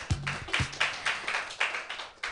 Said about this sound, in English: So uh, clap your hands wildly, everybody,